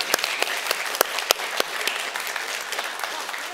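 An audience claps steadily for a few seconds, a dense patter of many hands with a few sharper, louder claps standing out.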